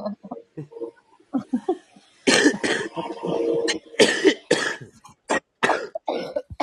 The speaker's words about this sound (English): Oh, stop it! You make me cough. oh dear. You guys sound. I feel like I'm at a fucking ICU ward in the hospital. It's coughing and shit going on.